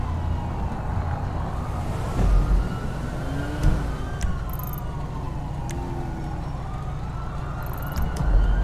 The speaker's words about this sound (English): I can hear sirens all the way over from Rockford Plaza.